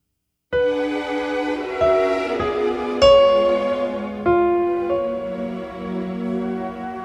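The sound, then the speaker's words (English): Keyboard notes playing the violin line along with a recorded orchestral passage, a handful of distinct struck notes entering every second or so and sustaining into the dense, continuous music beneath. No talking. “Here, let me here, let me see if I can back it up here again and and uh, try to play it on the keyboard while we're listening. I'll just play what the violin one plays.”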